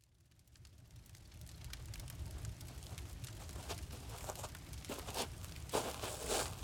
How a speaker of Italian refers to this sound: Fuori è buio e un fuoco acceso suona sotto un cielo stellato.